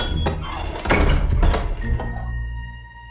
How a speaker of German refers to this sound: Auch nicht, als sich die gelbe Tür geräuschvoll schloss.